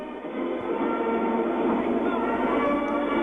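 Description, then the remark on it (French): The first French nuclear submarine, Le Redoutable, slides down its launch slipway into the water at its launch, a loud, steady grinding rumble, a heavy continuous roar of friction that holds without a break for several seconds. “Le sous-marin glisse sur son verso.”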